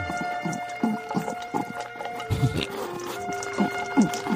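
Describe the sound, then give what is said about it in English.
A dog named Ursula eats a bowl of food, with a quick, uneven series of wet chomps and crunches over a steady low electrical hum. No one speaks. “You enjoy the food I give you. Eat it, and I'm going to listen.”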